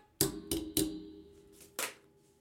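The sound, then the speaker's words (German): Hammering: three sharp blows in quick succession, a short pause, then a fourth strike, each with a brief metallic ring, with no voices. “Keine Ahnung, wer da jetzt nur hämmert und nicht flext.”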